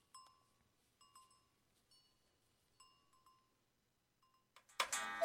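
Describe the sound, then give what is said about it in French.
A cuckoo clock in a room of cuckoo clocks chimes exactly on the hour with a soft, bright melody of ringing tones in four evenly spaced phrases, fading briefly before a harsh burst of noise cuts in at the end. “Cette douce mélodie annonce que nous sommes pile à l'heure pour la salle des coucous.”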